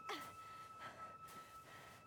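Quiet, heavy breathing of a person in their twenties who is out of breath while walking: several breathy gasps come at a roughly steady rhythm. No one speaks, and a faint steady hum sits underneath.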